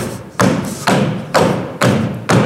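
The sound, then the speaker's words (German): Heavy feet stomp on a path, a way of walking learned in Africa to make snakes flee, in a steady rhythm: five loud, dull thuds about half a second apart, each with a gritty scuff. No one speaks. “Okay, also, wenn du weißt, wie das Trampeln geht”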